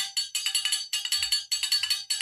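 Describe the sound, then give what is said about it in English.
A bright, bell-like New Year's noisemaker rings in rapid, repeated metallic strikes, grouped into bursts with short gaps between them. It is loud, with no voices. “I mean, that's like a bell.”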